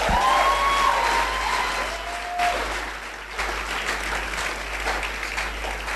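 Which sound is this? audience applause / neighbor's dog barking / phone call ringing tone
audience applause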